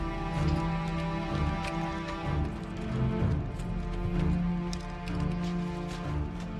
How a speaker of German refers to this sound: Die donnernden Schritte der Zwerge ziehen langsam in Richtung eines verwirrten elfischen Städtchens das aussieht wie aufgelöst.